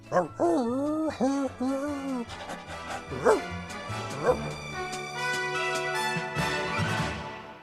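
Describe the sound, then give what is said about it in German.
A dog gives a quick run of high, yelping barks, then a couple of separate barks a moment later, while steady musical tones swell up underneath toward the end. “Schokolade ist schon weg, Knolli. Eine Dose Hundefutter hätte ich noch.”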